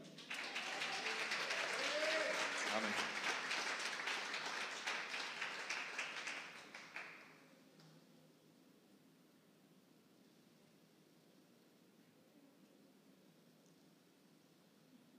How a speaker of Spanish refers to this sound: ¿Le damos un fuerte aplauso al Señor?